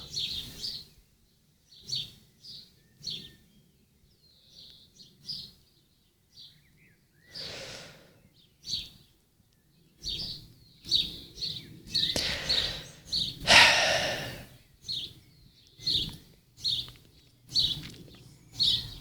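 Birds sing and chirp outdoors in repeated short bursts, several calls overlapping, with brief pauses between phrases and a denser, louder flurry midway through.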